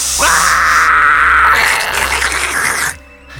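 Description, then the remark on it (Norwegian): A deodorant spray lit by a lighter roars out as a loud, steady, rushing hiss of flame for nearly three seconds, then cuts off abruptly. No one speaks over it. “Jeg har en lighter, hvis du tar den Deo-flaska som står der borte.”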